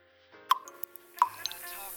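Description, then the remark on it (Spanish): Two aspirin tablets plop into a glass of water, about a second apart, each with a bright, hollow splash, followed by a soft fizzing hiss. “Dos aspirinas y un trago de agua te ayudan a iniciar tu día.”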